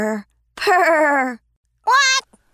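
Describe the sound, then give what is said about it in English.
A voice imitates a little duck snoring while sleepwalking: three fairly loud nasal groans, the middle one long and sagging in pitch, with short pauses between them and nothing else around. “She was snoring while walking straight without any intention of turning around.”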